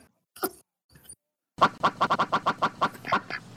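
A duck sound effect quacks loudly in a fast, steady burst of about ten nasal quacks, after a couple of softer, scattered calls at the start.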